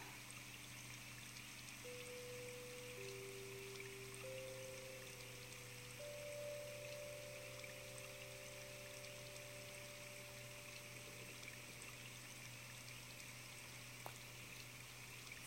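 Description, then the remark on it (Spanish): A soft, steady rush of flowing water runs continuously, alone with no voices, while several quiet sustained tones fade in one after another and hold underneath. “Porque en este momento, en este instante, solo estás tú con tu respiración, haciéndote consciente de cómo fluye el agua.”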